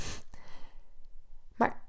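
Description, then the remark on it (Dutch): A dog sneezes or snorts: a sharp breathy burst, a quick second puff, then a short nasal snort after a pause, with no talking. “Sorry voor mijn hond”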